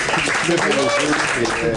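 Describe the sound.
A short burst of steady hand clapping from a small group, mixed with voices talking and calling out over it at an even, moderate loudness.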